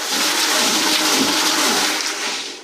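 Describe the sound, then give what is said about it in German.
A Hollander beater churns shredded cellulose sheets in water, grinding them into paper fibres, a steady, loud rushing and sloshing with broad hiss and a low mechanical rumble, continuous throughout with no voices. “Je länger man jetzt diesen Holländer laufen lässt, umso feiner werden die Papierfasern gemahlen und verändern so die Charakteristik von Papier.”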